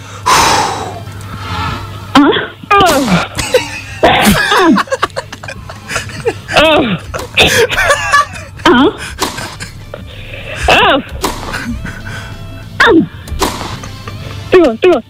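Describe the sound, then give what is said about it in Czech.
Two girls in a grunting contest take turns imitating tennis grunts, as when hitting a ball, each having to be louder than the other. They trade sharp, loud vocal bursts that grow more strained as they go, with a few laughs mixed in. “tak vezmeme to hekání a pojďme hekat do éteru. Jako když odpalujete míček.”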